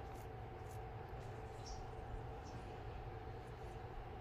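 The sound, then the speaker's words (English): A train rolls by in a steady, continuous rumble, with a sustained metallic whine and occasional faint squeaks over a deep low roar, holding even loudness throughout with no voices. “All right, so with that being said, people, it's time to train we're about to transition to bite this”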